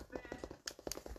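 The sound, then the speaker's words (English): A female cat in her first heat, not yet spayed, gives a drawn-out, wavering meow, with a couple of sharp, brief noises breaking in near the end. “She's horny cat.”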